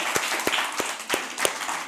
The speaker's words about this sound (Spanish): Tiene un aplauso a esos valientes que de perdida, pero lo quieres hacer bien.